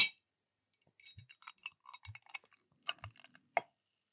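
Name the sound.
beer being poured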